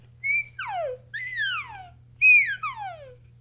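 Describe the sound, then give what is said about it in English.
A person whistles an imitation of an iguanodon call: four loud descending swoops in two pairs, each sliding from high to low, over a faint steady low hum. “I don't know what they sound like, but I think they sound like this.”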